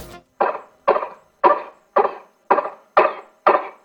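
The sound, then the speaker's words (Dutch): A hedgehog with lungworm coughing: seven short, dry, harsh hacks in a steady rhythm about half a second apart, clear, each bursting sharply then fading quickly, with no talking. “Ik hoor al het goede antwoord hoesten.”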